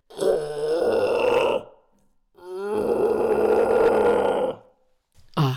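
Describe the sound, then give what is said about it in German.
A person imitates a red deer stag's roar with two long, deep, throaty bellows, each over a second long, followed by the start of a third. It is loud, with no talking. “War das jetzt ein äh, Sickerhirsch, ein Dammhirsch oder ein Rothirsch? Nein, das haben wir beim Rothirsch.”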